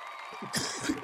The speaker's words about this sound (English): and the crowd goes wild. They go crazy.